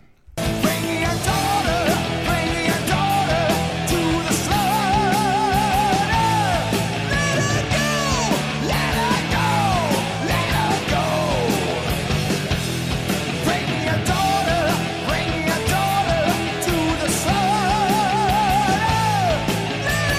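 A loud hard rock chorus with bluesy, driving guitar riffs and steady pounding drums, a strained, wavering vocal line soaring over the dense mix throughout.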